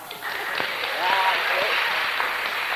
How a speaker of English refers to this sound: Give her a clap.